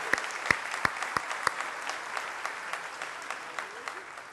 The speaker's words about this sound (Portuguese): E agora nós homens que estamos, vocês estão assentados, vocês vão dar uma salva de palmas para as meninas que estão em pé. Elas são a grande maioria.